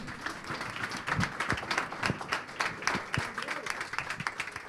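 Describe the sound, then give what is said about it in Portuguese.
An audience applauds the Lord Jesus with dense, sustained clapping, many sharp overlapping hand claps blending into a steady roar at an even loudness throughout, with faint voices mixed in. “Aplauda bem forte ao Senhor Jesus, amém?”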